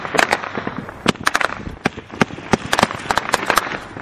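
Gunfire crackles in rapid, irregular bursts during a combat engagement, a dozen or more sharp cracks and pops over a steady background rumble, some loud, others softer, with no talking.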